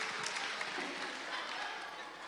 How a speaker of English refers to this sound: Good work, though, boys. Good work. Good well work. Give yourself a round of applause. Give a round of applause. That's it. Good. Well done.